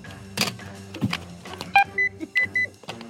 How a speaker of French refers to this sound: Et vous êtes chacun équipé d'un buzzer. Faites chacun retentir votre buzzer, histoire qu'on vous identifie.